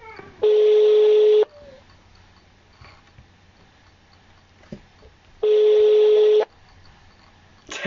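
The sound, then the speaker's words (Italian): A phone line rings back twice, each steady electronic tone lasting about a second with a pause of roughly four seconds between them, loud and clear over faint background rustling. “Se non risponde mi deprimo.”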